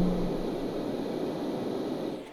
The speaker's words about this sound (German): Das ist wie so ein Ding im Bad. Das hört sich an wie ein Wasserfall. Oder ein richtig schlechtes Mikrofon. nee, das hört sich an wie so ein Lüfter im Bad.